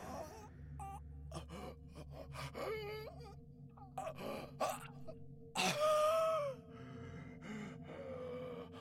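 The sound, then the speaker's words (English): A person gasps and heaves for breath in ragged, uneven bursts after being unable to breathe, with strained moans and one loud, drawn-out cry partway through before the breathing settles. “My lungs expand in my chest and I gasp relief and tears into the bark.”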